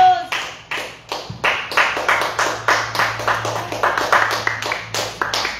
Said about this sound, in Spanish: A su nombre le gloria. Palmas al que vive por toda la eternidad, hermanos.